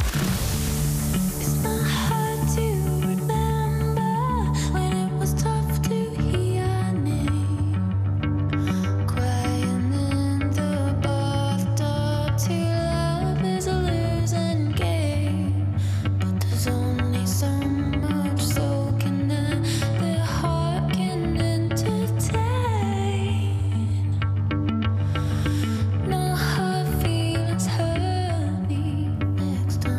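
A steady, full-band rock song plays at constant loudness, with a pulsing bass line, sustained guitar chords and bright cymbal wash throughout, no voices standing out clearly.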